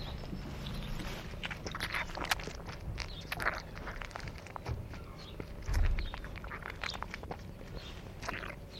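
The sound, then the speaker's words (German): A young animal sucks greedily at a milk bottle, recorded with the microphone held very close, with wet smacking and gulping sounds in an irregular rhythm, plus occasional soft thumps and rustling. “Wir wollen also jetzt zuerst die Geräusche des genussvollen Saugens zu kriegen versuchen und dann das Weinen.”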